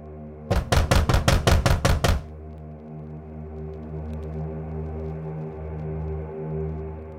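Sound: banging on a door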